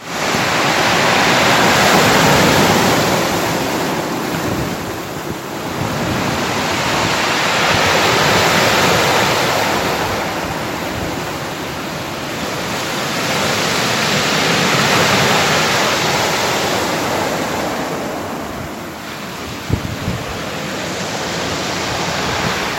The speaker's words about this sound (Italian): A ben vedere la giornata di domenica 18 è cominciata per qualcuno eh, con lo scroscio del mare d'inverno.